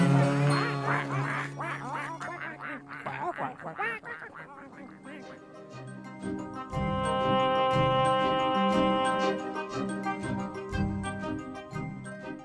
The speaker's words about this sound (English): Mother duck said, Quack, quack and all of the five little duckies came back.